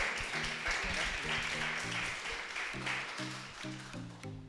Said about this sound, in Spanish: Ahora, gracias, un aplauso fuerte.